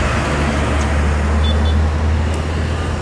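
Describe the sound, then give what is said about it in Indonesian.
Steady roadside traffic at Proliman Rekul, heard while sitting on a motorbike by the road: a continuous wash of engine noise with a deep low hum, as trucks, including Pertamina trucks, and motorbikes pass without any pause or break in the sound. “Dan benar, kalian mendengarkan suara-suara truk motor nanti.”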